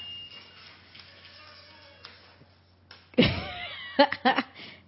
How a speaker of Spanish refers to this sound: si sí, vamos a entrar, viste, se abrió la puerta que ah, tuvimos hasta efectos de sonido.